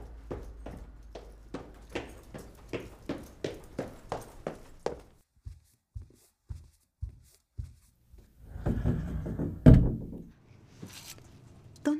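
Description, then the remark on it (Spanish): Quick, steady footsteps walk along, slow into softer scattered steps, then a brief rustling scrape ends in a single solid thud of a door being shut. “Cierras la puerta.”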